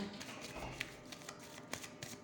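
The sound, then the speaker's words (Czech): Tarot cards being shuffled, a steady papery riffling with a few sharper snaps and flicks as individual cards are drawn and laid down, no voices. “Tarot potvrzuje, jo, jako ka- na, na pozici budoucnosti mi padla karta věž, takže tady není co řešit.”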